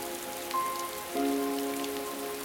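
Steady rain patters on a hard surface, a soft continuous hiss dotted with occasional sharper drops, with faint sustained tones humming underneath. No one speaks.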